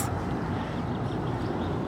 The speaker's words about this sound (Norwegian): Nå flyr det altså jagerfly rett forbi oss.